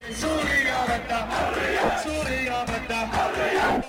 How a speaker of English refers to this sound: This leads to an exchange where … calls out to the crowd, Syria wants, and the crowd replies, Freedom, Surya Bada huraya, Surya Bada huraya.